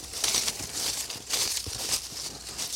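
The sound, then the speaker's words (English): A sheet of paper is unfolded: a few seconds of dry, irregular crinkling and rustling in bursts. Nobody speaks. “Open the goddamn piece of paper.”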